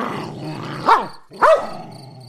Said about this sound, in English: The dog does not recognize me. He launches himself at me barking, showing his teeth and raising a crest of grey hair on his neck.